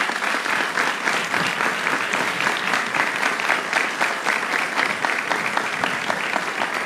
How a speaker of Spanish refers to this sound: A esta celebración, por favor que se pongan de pie todos los miembros de la Asamblea Legislativa que nos acompañan. Un aplauso para ellos y ellas.